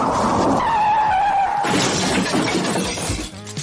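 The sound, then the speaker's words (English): Tires screech in a sustained high squeal for over a second, then a loud crash of breaking glass and crunching metal bursts in, with debris clattering as it fades. “All the weekend's source, news, gossip, and well, it wouldn't be a weekend recap show without traffic accidents, too.”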